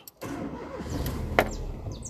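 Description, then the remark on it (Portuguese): A car engine cranks and catches after a brief silence, settling into a steady rumble with a sharp click partway through; no one speaks. The car is being started to move it into the shade. “Pra fazer mais um áudio de 3 minutos, eu vou colocar esse carro na sombra.”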